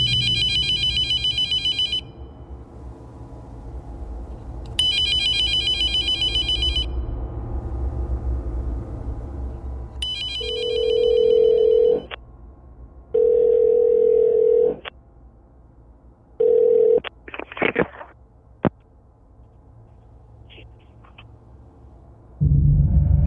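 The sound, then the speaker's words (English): A telephone rings in repeated, evenly spaced bursts of bright warbling tone, followed by a few shorter lower beeps and tones, clear with no voices, as a call is placed to a home phone number that a woman then answers. “Jerry called the number, she heard a woman on the other end pick up and say, Hello?”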